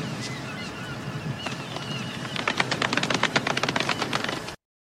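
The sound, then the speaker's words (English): A short run of quick, light golf claps, about a dozen sharp, evenly spaced pats that start after a couple of seconds of faint background noise and stop abruptly. “That kid who said you stink to the super shockmaster golf clap.”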